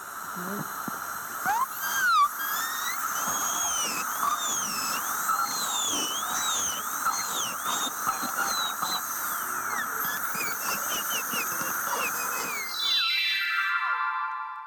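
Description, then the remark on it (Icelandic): A dentist's drill whines at a high pitch, its tone rising and dipping repeatedly as it runs steadily for about thirteen seconds, then winds down with a falling whine. No one speaks. “Þetta var tannlæknabor.”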